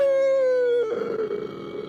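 A loud, drawn-out howl from inside a house holds a steady, slightly falling tone, then breaks into a rough, gravelly wail before trailing off. It is a single cry with no talking.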